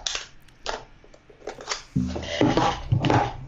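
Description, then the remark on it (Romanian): Handling noises as a flat camera battery is swapped: several sharp plastic clicks and rattles, then a muffled rumbling shuffle and more snapping as the compartment is closed, with no one speaking. “Schimbăm acum, rapid.”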